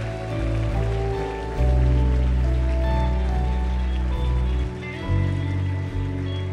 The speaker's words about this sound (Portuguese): Você pode aplaudir a Deus, mais vidas com as mãos levantadas. Uau, que incrível.